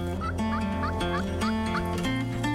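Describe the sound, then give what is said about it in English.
A wild turkey gobbles in a quick, rattling series of warbling calls, loud, standing out over a steady, dense background. “We got to have good quality time, we got to see birds and hear them.”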